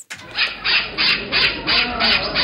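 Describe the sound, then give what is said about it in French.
A parrot squawks in a rapid string of harsh, raspy cries, about six in quick succession, loud with no one talking, at the cantonal aviculture exhibition in the Halle de la Maillarde in Romont. “Si vous vous demandez d'où vient ce bruit de perroquet, eh bien, il vient de Romont, plus précisément de la halle de la Maillarde qui accueille euh, ce week-end l'exposition cantonale d'aviculture.”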